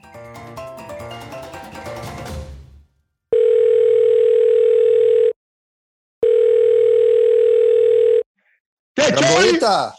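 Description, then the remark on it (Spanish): A telephone dial tone hums in two long, steady, mid-pitched beeps separated by a short silence while a phone call is being placed, following a brief burst of music; a voice starts talking right after. “A llamarlo.”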